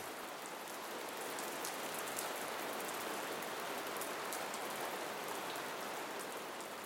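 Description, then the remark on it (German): Steady, heavy rain pours down outside a cave in a dense, continuous hiss with countless drops pattering on a surface, evenly loud throughout with no voices or pauses. “Draußen wird der Regen stärker und ich starte die Aufnahme für die heutige Folge.”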